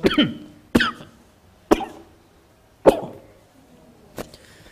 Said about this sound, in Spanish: Le digo que es espiritual, ya estoy mojado en el espíritu. Por eso la manifestación de la tos, usted no cree.